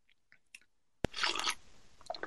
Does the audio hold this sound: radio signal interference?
no